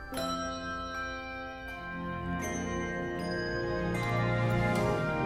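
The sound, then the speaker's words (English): A handbell choir plays a melody in a song tied to a cancer ward, where people ring the ward bell when deemed cancer free, with new bell strikes every second or so and bright, sustained tones ringing and overlapping at a steady, fairly loud level. No one speaks. “all of those bells that you're hearing from the song that they're doing with those individuals ringing a bell in a cancer ward”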